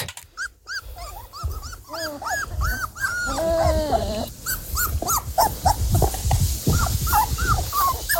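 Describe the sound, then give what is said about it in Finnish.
Four-week-old puppies whimpering and squeaking in a cluster of high, wavering cries, with soft snuffling and growly grunts underneath, continuous throughout. “Siis tällaista niinku tuhinatöötti ääntä.”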